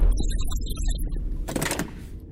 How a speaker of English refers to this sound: flashed her lanyard towards the CCTV camera, and with a short buzz, the door to the control room clicked open.